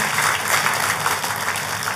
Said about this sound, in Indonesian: Tepuk tangan sekali lagi yang meriah buat Tuhan kita.